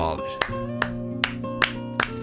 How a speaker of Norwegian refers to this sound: Er det lov å klappe i tenketanken? Nei, unnskyld. Nei. unnskyld. Jeg, tar det, jeg, tar de klappene tilbake.